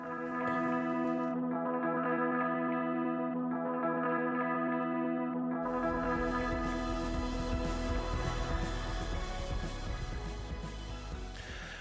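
Layered, droning instrumental music with echoing, effected tones swells into a fuller, denser section partway through, holding steady in volume before easing off slightly at the very end, played as the Filmofil show's first broadcast of 2012 draws to a close.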